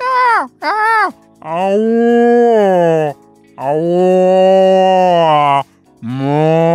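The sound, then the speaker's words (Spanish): A person imitates a cat's deep, drawn-out yowl that sounds almost like a cow mooing: two short rising cries, then two long, loud, sustained low moans, followed by a brief final one. “Y después hay uno, que es cuando la cosa se pone gedienta, que hace un maullido más eh, contrabajo.”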